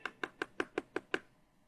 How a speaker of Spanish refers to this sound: estaban tocando la puerta